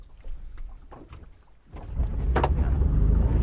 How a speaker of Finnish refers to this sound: No niin, vene lähti käyntiin ja nyt nautitaan hieman moottoriveneilystä Suomen aurinkoisessa, kerrankin aurinkoisessa kesäsäässä.